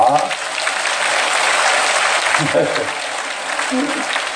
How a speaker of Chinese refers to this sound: 鼓掌